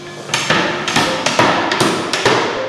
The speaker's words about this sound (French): Même si ça paraît brutal, au premier abord. Le fait de mettre des grands coups de marteau, ça, fait beaucoup de bruit, il y a beaucoup de poussière, il y a toutes ces choses-là.